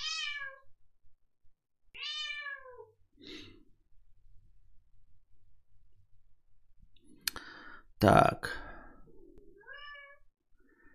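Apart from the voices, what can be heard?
cat meowing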